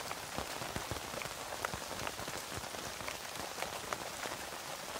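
Steady rain patters on a tent, a dense wash of drops with sharper individual taps scattered throughout, continuous and even for the whole stretch with no voices.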